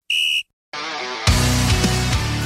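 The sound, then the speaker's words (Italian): A single short, shrill referee's whistle blast signalling the start of a half rings out clearly, then after a brief silence, loud upbeat music kicks in and builds with a heavy bass beat. “Sì, ha fischiato.”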